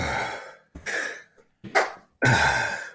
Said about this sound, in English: wow, that was like a half a sneeze. Where'd the other half go?